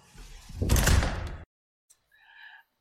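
A door swings shut with a loud, full-bodied thud that rumbles briefly before cutting off, followed by silence and a faint, short squeak afterward. No voices are present.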